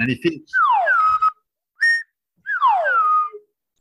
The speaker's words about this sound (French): ils avaient mis ce slide whistle dont je te parle, cette espèce de sifflet de cirque. J'en ai acheté un pour l'émission, j'ai fait un investissement, écoute.